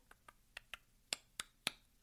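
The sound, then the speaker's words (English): A series of seven short, sharp mouth-made calls to stop a deer, starting with the mouth more closed and opening wider, spaced evenly and growing louder and brighter as they build, with no talking. “like that as I build up to just get the deer to hear me, because you'll know when they hear you.”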